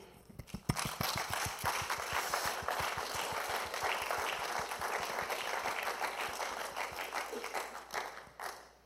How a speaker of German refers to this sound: und die Frau würde ich dir gerne vorstellen und hey, tun wir sie mit einem, mit einem warmen Applaus. Sie willkommen heißen hier auf der Bühne.